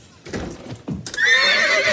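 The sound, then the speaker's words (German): A few dull thumps, then a horse inside a house lets out a loud, quavering whinny that carries on to the end, its pitch wavering up and down. “Da ist ein Pferd. In deinem Haus.”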